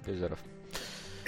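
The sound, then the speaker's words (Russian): A single sneeze: a short voiced intake followed by a sharp, noisy burst, with a faint bit of breathy sound trailing afterward. “Будь здоров.”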